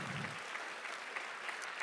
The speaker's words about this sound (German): Lass uns unseren Geschwistern noch mal einen ganz großen Applaus geben.